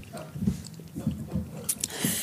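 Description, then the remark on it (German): Someone chews cheese, with soft wet smacking and mouth noises repeating every half second or so, plus a few sharper clicks near the end. “Aber ich glaube, jetzt schmatzen wir alle ran.”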